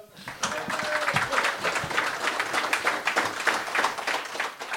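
A crowd claps steadily for several seconds for a guest musician, a dense, continuous patter of many hands with no break, fairly loud.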